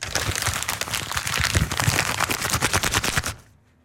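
Paper, damp from the humidity outside, being crumpled for ASMR, a dense run of sharp crackles and rustles for about three and a half seconds before it stops abruptly into silence.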